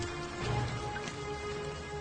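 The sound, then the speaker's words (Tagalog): A steady, dense hiss of heavy rain pours continuously, fairly loud and even throughout, with a faint low hum underneath and no voices, in an area of rice fields. “Lalong dumagong dumagungdong ang kaba sa dibdib ko kasabay ng malakas na pagbuhos ng ulan noong mapansin kong may isang lalaking nakasunod sa akin.”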